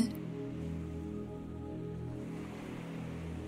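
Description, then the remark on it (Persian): A steady, soft wash of sea waves rolls on continuously at a low level, blended with a sustained, gentle tonal drone, with no voices present. “به آرومی در حال حرکت روی سطح آبه صدای امواج دریا جسم و ذهنتون رو آروم میکنه”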